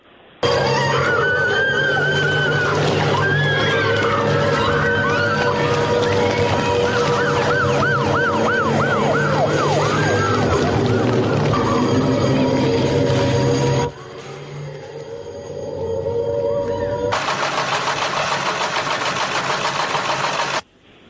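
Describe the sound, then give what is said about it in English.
Scene from the film Threads in which a nuclear bomb is dropped: loud wailing sirens rise and fall over a dense roar, cut off abruptly into a quieter rumble, before a harsh, steady rushing noise bursts in. “It's the um, bit in Threads when they drop a nuclear bomb.”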